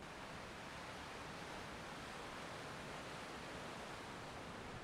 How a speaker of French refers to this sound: Par contre, peut-être je peux te faire écouter un petit peu. Allez, j'essaye ça. Je vais tendre, je vais tendre le micro à l'océan. Voilà.